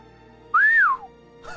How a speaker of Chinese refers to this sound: 薛峰看着亦步亦趋跟在屈颖身后的大帅哥，顿时心领神会，挤眉弄眼的朝着屈颖吹了个口哨。